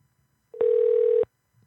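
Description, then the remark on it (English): A telephone call being dialed: one loud, steady mid-pitched electronic tone holds for just over half a second, then cuts off, with only a faint low hum around it and no talking. “I'm not sure if we try to call this one, but we will.”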